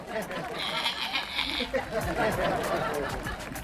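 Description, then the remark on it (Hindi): A person mimics a goat's bleat with a quavering, nasal 'meh-eh-eh' lasting about a second. Background chatter and laughter continue underneath. “thank you thank you for the sound effect”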